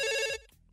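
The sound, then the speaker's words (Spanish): A telephone in a phone booth rings once for an incoming call, a bright, buzzing electronic tone lasting about a third of a second before cutting off, followed by faint background noise. “Teléfono en cabina.”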